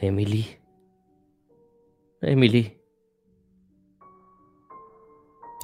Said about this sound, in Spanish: Se escucha el eco de mi voz atravesando los pasillos de esta ala de la mansión. El eco de una voz de niño asustada y con un punto agudo.